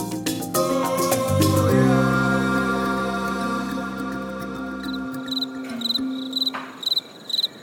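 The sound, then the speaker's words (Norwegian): Crickets chirp in steady, rhythmic pulses of high trilling after a sustained musical passage fades out, the chirps clear on an otherwise quiet, mild night in Africa. “Sirissene sang, og det var mildt i lufta.”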